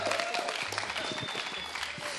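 A burst of audience applause, dense continuous clapping from a crowd that stays steady and fairly loud for a couple of seconds.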